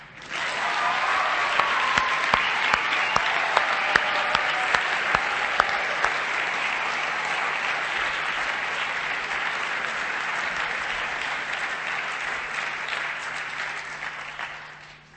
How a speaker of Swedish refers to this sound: Så ett jättetack från oss för de här åren eh, och allt gott i din nya tjänst. Nu applåderar vi.